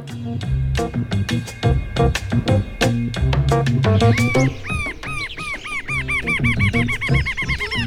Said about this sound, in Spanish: Bueno, y justamente en estas aves del Uruguay aparece, por ejemplo, el batará pardo.